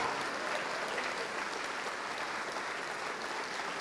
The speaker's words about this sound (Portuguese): Vamos aplaudir mais, está chegando mais.